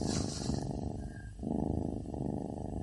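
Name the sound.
cat purring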